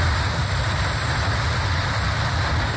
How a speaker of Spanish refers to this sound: El volcán erupcionó con ceniza y lodo hirviendo en la vereda Palmares de Ceniza, donde los bomberos y la defensa civil tuvieron que atender la emergencia para evitar una tragedia. Así se escuchó la erupción en videos de los pobladores atemorizados.